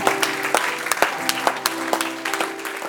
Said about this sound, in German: Sollen wir ihm einen riesigen Applaus geben und sagen, danke Gott für dein Wunder, danke Gott für dein Leben, danke, dass du uns lieb hast, in Jesu Namen.